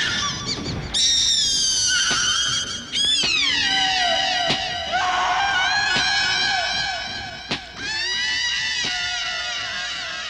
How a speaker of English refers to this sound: we are seeing an undead, flesh hungry, bloodthirsty child proceed to kill her own mother with a garden trowel and you get this just amazing sound effect of just the high pitched shriek get higher and higher and higher.